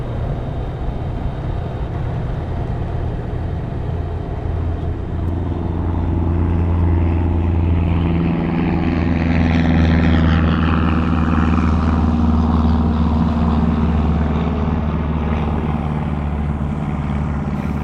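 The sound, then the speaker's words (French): A propeller aircraft engine drones steadily, then swells louder around the midpoint as it accelerates, its low throbbing hum rising and rasping with a sweeping, rising whine above it. No one speaks. “Après, du moment où on se met à accélérer, ça fait vraiment beaucoup de bruit. L'hélice fait beaucoup de bruit.”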